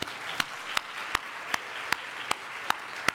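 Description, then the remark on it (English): An audience turns around and applauds the AV and sound crew in the booth, a steady hiss of many hands clapping, with one sharper clap standing out in an even rhythm roughly every third of a second. No one speaks. “So turn around, give them a hand.”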